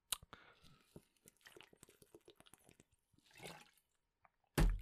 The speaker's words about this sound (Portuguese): Vou beber água.